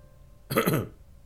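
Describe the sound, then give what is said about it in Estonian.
A man clears his throat once in an empty corridor, a short gruff rasp lasting under half a second, fairly loud against a quiet background, with no talking around it. “ta köhatas ja seegi hääl sumbus koridoris, nagu oleks ta surnud samal hetkel.”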